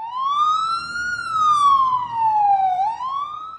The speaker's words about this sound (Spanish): como es correcto, es mi deber encender la alarma de spoilers.